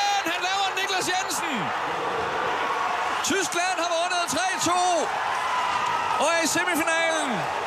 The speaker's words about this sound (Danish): Schweiz er ud af VM. Og jublen her, den fortæller alt om, hvilken meget, meget stor overraskelse det er, at Patrick Fischer og, Ty- og Schweiz ryger ud.